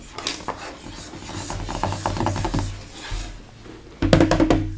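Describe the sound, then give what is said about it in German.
Fingers rub and scrape across a ridged fidget toy, giving a steady rasping texture of rapid little clicks that turns louder and choppier near the end. No one speaks. “Ich tu mit den Fingern hier drüber streichen.”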